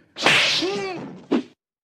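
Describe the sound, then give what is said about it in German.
A cartoonish slap effect: a rising, airy swish builds for about a second, then a single sharp, loud smack lands, with no voices. “Die Ohrfeige.”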